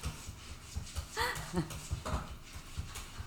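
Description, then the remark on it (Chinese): A cat gives a few short, strained cries that bend up and down in pitch, scattered over about three seconds, with low thumps and rustling underneath. “他真的很疯哎，他家那只猫真的很疯。”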